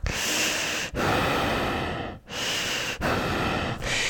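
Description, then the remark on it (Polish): A voice imitates heavy, noisy breathing, four long rasping breaths in a slow steady rhythm with brief pauses between them, loud and breathy with no words, mimicking a woman standing behind someone at a shop checkout and breathing onto their neck. “I e, jak już położysz swoje rzeczy na, na taśmę, to ona wtedy będzie stała za tobą i będzie oddychała prosto na twój kark.”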